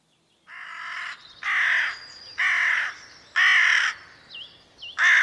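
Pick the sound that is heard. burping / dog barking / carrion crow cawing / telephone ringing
carrion crow cawing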